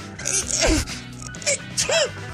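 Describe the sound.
A sneeze bursts out of a played-back voice message, followed by a couple of short, strained vocal sounds, all at moderate loudness with a slightly thin, recorded quality.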